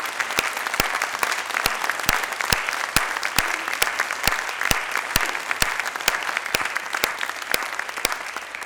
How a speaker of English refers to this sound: Let's give them a really big round of applause. Absolutely.